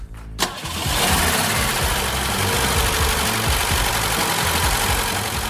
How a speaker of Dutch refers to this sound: Niet te geloven dat deze oranje auto 50 jaar geleden gebouwd werd. Dit is een halve eeuw BMW-geschiedenis die u hoort draaien in een symfonie van Duitse ingenieurskunst.